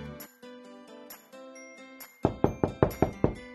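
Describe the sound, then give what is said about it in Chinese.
A light, tinkling musical phrase plays, then Xiaoqu knocks again on Miaomiao's door in a quick, even run of about seven firm raps, with no one speaking. “小趣又敲了敲门。”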